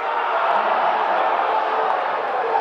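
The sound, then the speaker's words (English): A dense, steady roar of many voices talking at once fills a packed sportsbook bar at the Westgate Las Vegas in the late afternoon, loud, with no single speaker standing out from the crowd chatter. “And by the late afternoon, every leather club chair in the place is filled and it's loud.”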